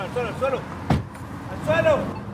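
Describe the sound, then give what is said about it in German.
A border police officer brakes an off-road vehicle and a car door opens with a single sharp thud, set against low vehicle rumble, as he jumps out with two colleagues; voices shout loudly in Spanish, "on the ground", just before and after it. “bremst den Geländewagen ab, springt mit zwei Kollegen aus dem Auto und ruft auf Spanisch, auf den Boden, auf den Boden.”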